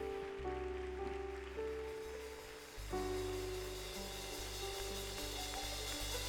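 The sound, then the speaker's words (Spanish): A church audience applauds the King of Glory in a dense, continuous wash of clapping that holds steady throughout, with sustained musical tones underneath and no one speaking. “aplauso al Rey de Gloria en esta hora.”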